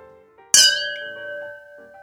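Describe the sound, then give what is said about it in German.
Glasses of red wine clink together once in a toast, a bright sharp strike followed by a clear ringing tone that lingers and slowly fades, with no talking. “Lass uns nochmal anstoßen, das war auch ein lustiges Geräusch.”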